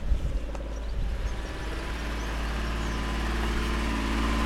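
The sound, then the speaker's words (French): A boat engine rumbles steadily at low pitch, holding a continuous drone that grows slightly louder and fuller over a few seconds as the boat gets under way, leaving a lock on a canal. “Pas de problème de moteur pour toi, vas-y, roule, roule.”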